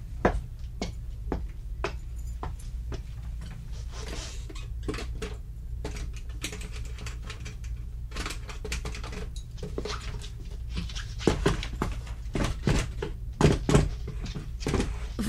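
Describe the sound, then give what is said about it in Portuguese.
A heavy chest of drawers is shoved and dragged across the floor against a door, with irregular scrapes, knocks and bumps over a low steady hum and no voices. “Você está encostando a cômoda na porta”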